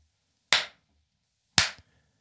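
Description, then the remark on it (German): Two big, sharp hand claps about a second apart, each loud and bright with a short echoing tail that rings out briefly before silence. “Okay, then there's a very big echoey clap.”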